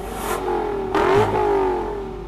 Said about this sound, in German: Sauger V8 ist immer doch irgendwie immer noch am besten.